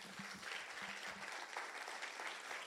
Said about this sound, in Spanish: Dar un aplauso fuerte a Jesús.